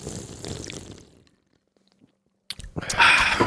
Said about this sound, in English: oh yeah, baby, back. One slurp.